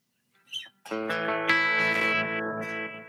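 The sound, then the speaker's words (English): A short burst of electric guitar played through a low-cost headphone amp, with a thick, distorted tone, rings out after a brief pick noise, sustaining a chord for a couple of seconds, fairly loud, with no talking. “So, um, let's check this out. I'm just going to make sure I get a signal.”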